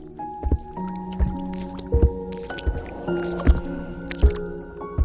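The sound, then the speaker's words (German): Rhythmic splashing as small dinosaurs race through water covering swampy meadows, roughly seven or eight wet squishy steps at an even pace, with soft melodic music playing underneath. “Die kleinen Dinos nutzen das natürlich fröhlich aus und rasen durch das Wasser, dass es nur so spritzt.”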